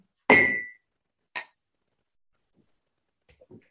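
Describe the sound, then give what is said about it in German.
Glasses clink together in a toast: one bright, ringing clink with a short decay, then a lighter second tap, followed by a few faint small knocks. No one speaks. “Genau, lasst uns erstmal anstoßen.”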